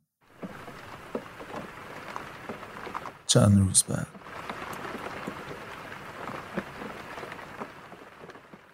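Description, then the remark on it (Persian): Steady rain patters against the window glass of a cell, a dense, continuous spray of small taps running throughout, with a voice speaking briefly over it partway through. “باران به شیشه پنجره های سلول میزد”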